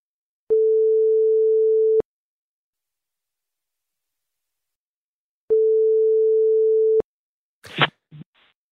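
signal or alarm, telephone ringing tone

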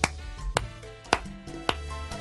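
human body sound, rhythmic hand clapping

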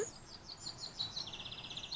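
bird, birds chirping outdoors

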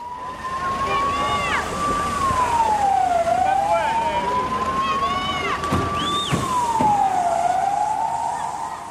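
vehicle, ambulance siren

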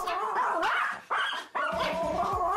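animal, small dog barking

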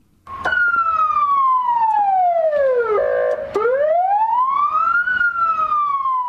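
signal or alarm, police car siren wailing

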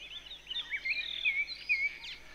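bird, birds chirping and singing

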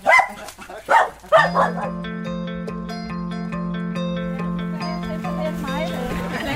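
animal, dog barking

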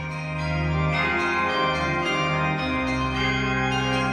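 signal or alarm, church bell ringing

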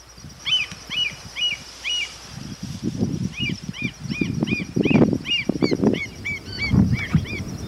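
bird, bird calling

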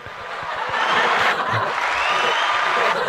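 crowd, audience applause

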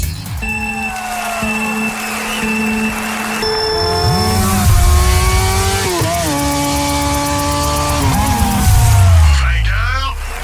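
vehicle, motorcycle race engines revving

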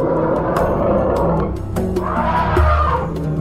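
animal, elephant trumpeting

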